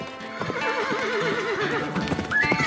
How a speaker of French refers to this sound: Imaginez, la poussière s'élève sur l'horizon le voilà qui arrive, dans le soleil couchant, chevauchant avec fougue au grand galop.